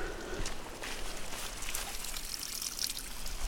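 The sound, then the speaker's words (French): A steady, soft trickle of spring water runs throughout, a continuous hissy babble with faint bubbling glints in the upper range and no voices. “Il y a une source qui coule.”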